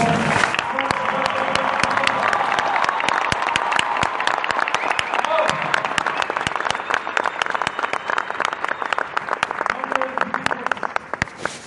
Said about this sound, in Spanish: Y por eso quiero que le den un fuerte aplauso, por favor.